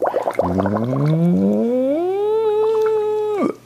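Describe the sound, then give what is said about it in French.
A voice hums through a straw, sliding upward from a gurgly, bubbling start into a steady, held high note. The bubbling drops away as the free airflow is cut off on the high notes, and the tone stops abruptly. “Ah, problème, mes bulles se sont carrément coupées.”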